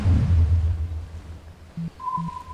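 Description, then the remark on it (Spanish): A video game compass, activated to search for treasure, pings: two short, low electronic blips followed by a thin, steady high tone, heard over a soft low rumble with no talking. “Activamos la brújula.”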